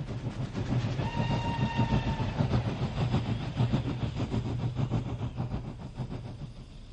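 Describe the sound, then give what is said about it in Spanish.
A train rolls steadily along the rails with a deep, continuous rumble and a rhythmic clatter of wheels. A thin, high squeal rings out briefly near the start. No one speaks. “La historia sobre cómo aquellos judíos llegaron en trenes a Auschwitz es una de las más terribles y sorprendentes en la historia de la solución final de los nazis.”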